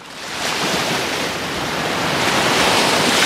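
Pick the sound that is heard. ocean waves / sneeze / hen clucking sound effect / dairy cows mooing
ocean waves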